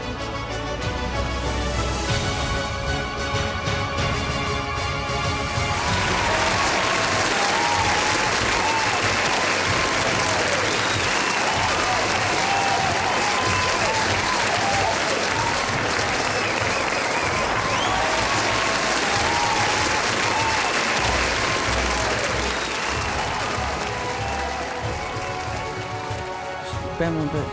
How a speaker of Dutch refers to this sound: Ik vind dat we het beste minuutje kunnen klappen.